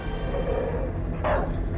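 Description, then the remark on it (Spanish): A fierce, furious dog lets out a single sharp, loud bark, preceded by a low rumbling snarl against a dense, noisy background. “En una ocasión llegó a la ciudad un perro que daba miedo. Estaba realmente furioso el animal.”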